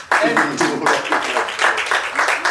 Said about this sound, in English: I think round of applause actually.